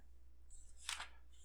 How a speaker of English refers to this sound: before you, well, while you're shuffling, I suppose, before you deal out the next hand?